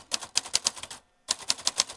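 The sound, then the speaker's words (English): Rapid clacking keystrokes of a manual typewriter used to type a poem on the spot, in two quick bursts separated by a short pause, each strike sharp, with no voices. “I'm with the Typewriter Rodeo, in the Typewriter Rodeo, we make up poems on the spot on whatever topic people want.”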